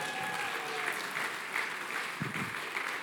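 A crowd claps steadily in a sustained burst of applause, dense and fairly loud throughout, with no clear speech standing out over the clapping.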